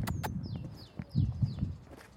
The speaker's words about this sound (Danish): Så jeg løber igen.